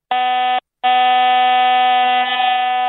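A telephone giving up with a harsh, steady electronic buzzing tone in two bursts: a short half-second blast, a brief gap, then a long sustained drone, loud and rich in harsh overtones.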